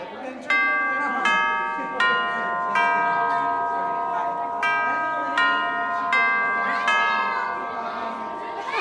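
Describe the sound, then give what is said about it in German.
A school bell jingle rings out as a series of bright, resonant chime strikes, about eight notes in an uneven melodic rhythm, each ringing on and overlapping the next, loud. “Na gut, dann ist jetzt Zeit, ob, ähm, äh, ob wir nochmal die Klingel hören, weil jetzt könnten noch Hausaufgaben aufgegeben werden. Hier ist das Jingle.”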